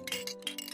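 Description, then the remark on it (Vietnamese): Small jingle bells rattle and ring in a few quick shaking bursts, a bright metallic tinkling that is fairly soft, with no voices. “Vài hôm sau, trong lúc đang lúi cuối pha sữa cho con, thì bỗng kiên nghe thấy tiếng lục lạc ở trên nồi rung lên.”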